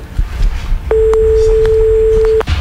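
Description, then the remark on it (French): A single steady ringing tone on a phone line, a pure hum lasting about a second and a half, with faint background clatter and noise around it. “En tout cas, le, téléphone sonne.”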